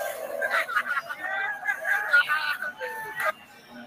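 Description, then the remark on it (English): Several excited voices shout and yell over one another in a continuous, raised burst in a rolling coal video, sounding like a crowd heard through a video's speakers. “You can hear them damn Caucasian white people yelling.”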